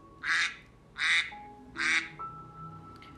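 A duck quacks three times in a steady rhythm, each quack loud and raspy, followed by a quiet stretch with a faint tonal hum in the background.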